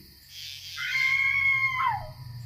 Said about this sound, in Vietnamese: Quá sợ hãi bà liền thét lên một tiếng rồi ngã vật ra đất ngất liệm